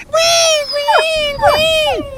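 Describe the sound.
A person imitates the whining a mongrel dog makes when it rains and it gets cold: a sustained, nasal high-pitched whine that wavers, with two quick downward-sliding yelps partway through, all loud and continuous.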